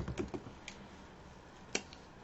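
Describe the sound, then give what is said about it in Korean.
Quiet computer keyboard typing as someone types a search for Chungcheong dialect: a quick cluster of soft key clicks, a short pause, then a single sharper keystroke followed by one faint tap, with no voices. “충청도 사투리로 한번 쳐볼까요?”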